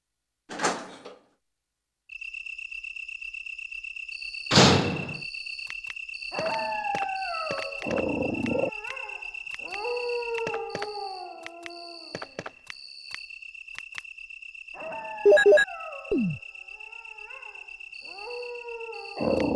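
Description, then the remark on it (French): Several dogs whimper and howl outdoors in the gardens in repeated, falling, plaintive cries that overlap one another, over a steady high-pitched electronic whine, with a couple of sharp door-like bangs early on. “quand on va dans les jardins et qu'on entend le bruit de ces chiens qui pleurent et.”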